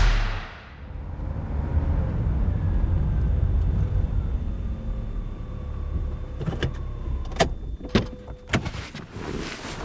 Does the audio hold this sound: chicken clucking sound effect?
no